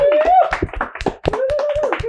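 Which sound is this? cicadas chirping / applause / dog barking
applause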